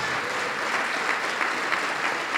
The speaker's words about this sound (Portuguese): Vamos aplaudir mais ao nome de Jesus. Olha que coisa maravilhosa, vamos aplaudir mais, igreja. Que bom que você tomou a decisão. E está vindo mais, vamos aplaudir mais.